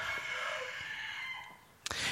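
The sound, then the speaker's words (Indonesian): A rooster crows at a home with many chickens, a long, strained call that slowly trails off, heard alone, followed by a brief sharp noise near the end. “aduh maaf ya banyak ayam di rumah gue jadinya berisik”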